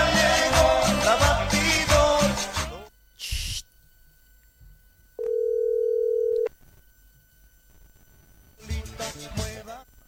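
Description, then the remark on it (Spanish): A single steady, mid-pitched telephone tone of a call being rejected holds for just over a second, set between loud passages of music with a short burst of noise before it. “Ay, Mari, no, me está rechazando la llamada.”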